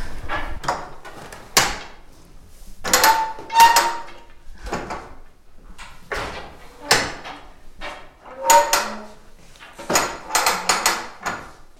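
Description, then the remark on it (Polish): A wooden loom creaks and clunks as a length of woven fabric is wound onto the roller beneath it, an irregular series of about a dozen squeaky knocks and ratchety creaks with brief pauses between, no voices. “I w momencie, gdy chcemy w momencie, gdy chcemy przewinąć kawałek tkaniny, bo tak jakby w czasie tkania widzimy tylko około 20-30 cm powstającej tkaniny, reszta jest nawijana na taki wał pod krosnem, e, no to ten proces brzmi tak.”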